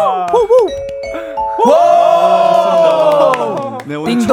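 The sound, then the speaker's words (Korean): A quick run of bright stepped notes rings out as a ding-dong-daeng-dong correct-answer chime on a radio show, then gives way to a loud, sustained tonal fanfare with crowd-like cheering noise beneath it. “딩동댕동. 이 나왔고요.”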